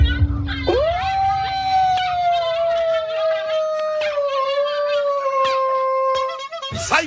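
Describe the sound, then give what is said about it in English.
A dog lets out one long, loud howl that swoops upward at the start, then holds a steady, slightly wavering pitch for several seconds before cutting off abruptly. “Can we get right, the clown dog? We gotta get the clown dog in that bitch.”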